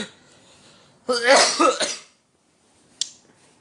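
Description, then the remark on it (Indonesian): A person coughs once in a loud, harsh burst lasting about a second, followed by quiet and a faint short click near the end. “aduh bangsat batuk beneran gua”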